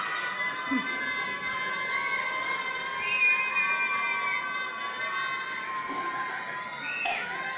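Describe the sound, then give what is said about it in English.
A crowd of children shouting at the top of their voices on request to be as loud as they can, a sustained, dense, high-pitched roar of many voices that stays loud and steady for the whole stretch without a break. “We're gonna be really loud. Really loud. Louder, louder, louder.”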